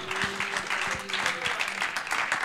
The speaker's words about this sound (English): If you believe that, clap your hands to Jesus this morning.